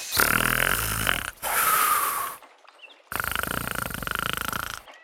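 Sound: voice imitating loud snoring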